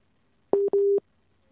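signal or alarm, phone busy tone

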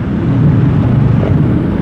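vehicle, road traffic

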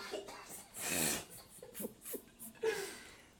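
human body sound, a person coughing

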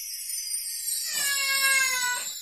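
animal, cat meowing

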